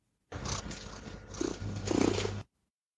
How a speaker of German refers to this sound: Bei meinem Kater Blackie zum Beispiel damals war das auch häufig so, dass er geschnurrt hat, wenn er gestresst war beim Tierarzt.